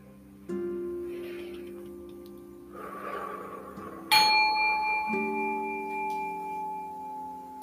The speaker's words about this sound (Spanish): Respiramos y cuando suene otra vez la campana, habremos finalizado el ejercicio.